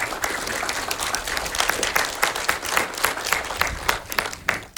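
A crowd applauds steadily to welcome a guest, a medicine reporter, onto a show. Dense overlapping claps fill the room at a fairly loud level, with no speech over it for the few seconds it lasts.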